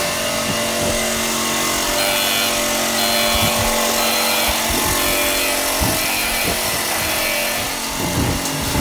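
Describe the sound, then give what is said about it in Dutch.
A pear sorting machine, which measures each pear's circumference and sends it by size to a belt where people sort it, runs loudly and steadily, a dense mechanical roar with a low drone and irregular clunks and knocks throughout, with no one speaking. “ja die maakt lawaai.”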